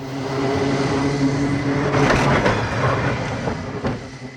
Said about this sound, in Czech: Nacházíme se na dálnici D10